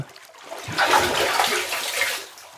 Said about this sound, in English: A splashing sound came from the tub, and I could feel cold water spilling onto the floor, soaking into my clothes. The sound of a heavy, wet footstep exited the tub.